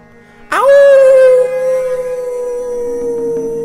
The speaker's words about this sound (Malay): bunyi anjing yang menangis ataupun anjing yang merintih seolah macam dalam keadaan kesakitan. Dan part bahagian yang paling seram sekali ialah dekat depan pintu itu bunyi berselang-seli antara bunyi anjing menangis itu ialah bunyi perempuan mengilai.